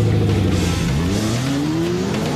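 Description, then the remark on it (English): A loud V8 car engine revs and accelerates, its throaty pitch climbing steadily over a couple of seconds with no one speaking. “If you've got eight cylinders under the hood, you need six gears and a clutch.”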